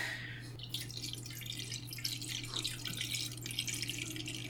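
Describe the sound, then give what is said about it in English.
Liquid pours steadily into a container, a continuous splashy, bubbling trickle lasting several seconds at a fairly soft level, with a faint low electrical hum underneath and no talking. “And tell me when to pour.”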